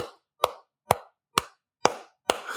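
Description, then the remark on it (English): A steady run of sharp imitated claps or slaps, about five or six evenly spaced roughly half a second apart, fairly loud, with no talking in between. “then the shepherd just starts clapping along being like, oh shit, what are we celebrating?”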